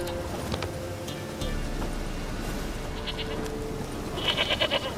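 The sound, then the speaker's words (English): A goat bleats in short, wavering, quavering calls that grow louder toward the end, heard over a steady low background murmur with no one talking. “But uh, I've lost my goat yesterday and I want you to look for it.”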